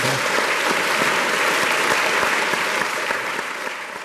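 Loud, sustained applause from an audience thanking the two speakers after a debate on the financial system, a dense patter of many hands clapping steadily for several seconds before beginning to thin out slightly near the end.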